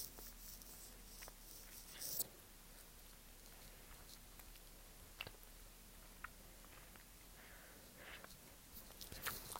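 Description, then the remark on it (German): Quiet mouth sounds of biting and chewing a gummy snake candy: soft, sparse wet clicks and smacks at irregular intervals over a faint hiss, with no talking. “Ich lutsche an einer gummi-schlange”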